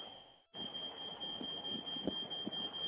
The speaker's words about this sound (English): Well, other than the fire alarm going off in my place, everything's going pretty well. I just got a green key here, but everything's good and I hope everything keeps going very, very well. Folks, don't mind the noise right there. I'm not on fire